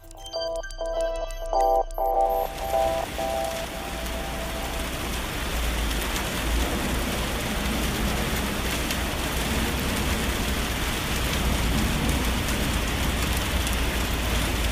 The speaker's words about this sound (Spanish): Es, es, la lluvia en nuestra terraza, un pequeño paisaje sonoro. Está lloviendo. Ah, Así se escucha en la terraza de Radio UNAM en Adolfo Prieto 133.